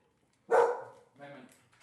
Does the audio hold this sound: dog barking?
yes